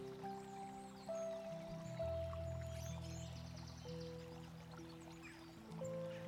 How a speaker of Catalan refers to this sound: Recrea't en aquesta visualització, com si fossis de veritat al costat del riu, veient el curs de l'aigua, el seu so i totes les sensacions que vulguis com si fos real.